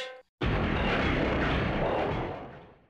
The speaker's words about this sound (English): What? An explosion! Oh, and now the whole city's listing!